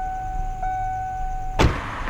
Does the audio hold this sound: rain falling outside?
no